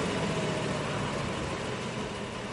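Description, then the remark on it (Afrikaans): An engine idles steadily, a continuous low rumble with a rough, even texture that holds at a constant level for the whole stretch, with no voices. “Ja, sy, die enjin kan loop.”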